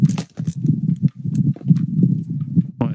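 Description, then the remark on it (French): A steady, low rumbling interference noise fills the line during a conversation, broken by irregular soft thumps and a couple of brief crackling bursts, fairly loud, with no one talking. “Il y a des putains de bruits parasites là.”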